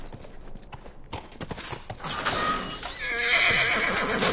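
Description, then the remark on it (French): A horse's hooves clop in an uneven rhythm, then the horse lets out a loud, drawn-out neigh that fills the second half. “Reste avec le cheval.”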